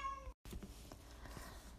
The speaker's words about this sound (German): und wenn du jetzt im Hintergrund irgendwas weinen hörst, nein, ich habe kein Baby, das ist meine Katze.